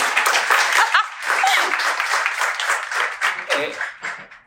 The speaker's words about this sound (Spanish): yo este me merezco un aplauso. Por favor.